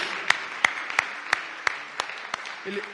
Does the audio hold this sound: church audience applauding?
yes